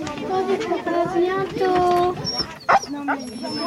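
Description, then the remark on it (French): A dog whimpers in high, wavering whines, then gives a single sharp bark near the end, with faint voices in the background, in the Jura. “tu vas à côté d'un chien et puis moi je vais les ranger et puis si t'es à côté du chien quand je le range, bah tant mieux pour toi.”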